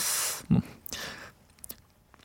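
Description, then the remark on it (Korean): Vocal beatboxing by a singer: a long breathy hiss, then a deep punchy kick-drum thump, another airy snare-like burst and a few light clicking sounds, all from a voice with no words. “비트박스를 짱 잘한다는 … 씨가 비트를 살짝 쿵 넣어서 알려주실 수 있나요?”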